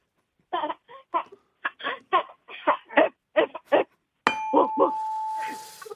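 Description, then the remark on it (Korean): A woman imitates a large dog, one as big as a calf, barking on a radio show: a quick run of about ten short, gruff voiced barks, then a sustained ringing bell tone sounds over a few final yelps. “예, 큰 개 짖는 소리요.”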